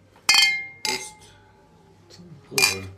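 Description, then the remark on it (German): Glasses clink together in a toast, three bright, ringing taps: two in quick succession, then a third after a pause, each leaving a short shimmering tone with no voices. “Prost, Prost die Herren Milchtrinker.”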